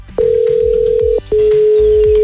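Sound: telephone dial tone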